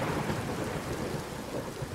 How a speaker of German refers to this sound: Trotzdem brach über Woodstock bekanntermaßen ein Regenschauer sondergleichen herab.